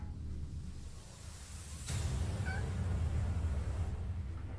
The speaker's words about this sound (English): Don't you fucking meow at me.